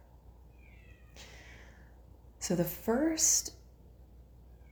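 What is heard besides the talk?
domestic cat meowing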